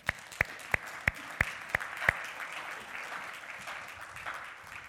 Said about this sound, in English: You guys, thank you. Let's clap them off, you guys.